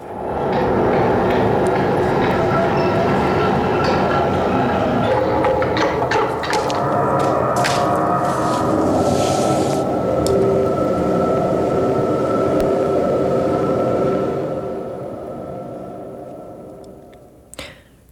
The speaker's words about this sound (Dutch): We hebben een fragment van de trein die binnenkomt, om mm. even een idee te geven. Het is heel beklemmend, het is heel groot, het vult de hele ruimte.